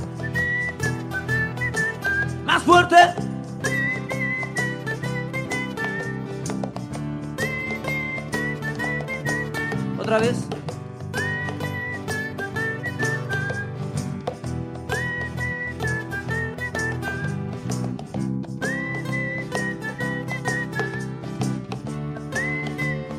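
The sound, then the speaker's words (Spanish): Several people whistle a tune together over a steady guitar accompaniment, repeating the same melodic phrase in loud, sustained passages, with a brief spoken call partway through. “Vamos todos a chiflar.”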